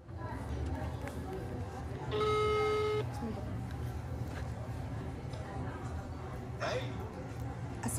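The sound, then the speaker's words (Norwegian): A telephone call tone sounds once, a steady electronic note lasting about a second, over restaurant background noise played from a speaker in a living room at home: low rumble and indistinct murmuring voices. “Eh, og hadde skrevet manus, og så ringte vi.”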